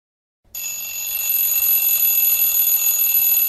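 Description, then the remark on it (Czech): An alarm clock rings loudly and continuously after a brief moment of silence, a steady shrill metallic jangle that holds without pause, with no one talking. “Voku zvoní budík.”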